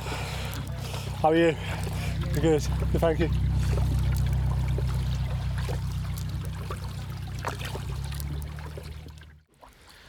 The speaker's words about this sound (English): That narrow boat that just went past me uh, was called Tara,